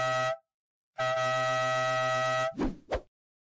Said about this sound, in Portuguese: Vamos embora, vamos para a vinheta.